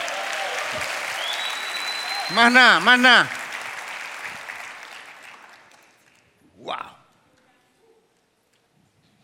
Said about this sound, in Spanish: Dale un aplauso a Jehová, gloria a Dios.